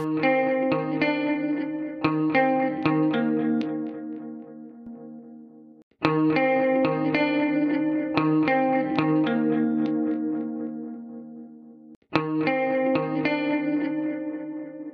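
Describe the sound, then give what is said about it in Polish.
A compressed, plucked bass-string guitar phrase with punchy attacks and sustained notes, played three times in a row, with slight gritty distortion in the low end added by a FET compressor set at an 8:1 ratio with long attack and shortest release. No voices. “A sam kompresor w wprowadził trochę zniekształceń w najniższym paśmie, dobrze słyszalnych przy ratio 8 do 1.”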